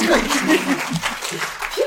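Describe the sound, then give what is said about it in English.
A brief burst of audience applause for a speaker's comments calling for abolition of the work activity test, a dense, steady patter of clapping mixed with scattered chuckles and voices underneath, lasting just a couple of seconds. “I love forced, forced applause for my for my comments.”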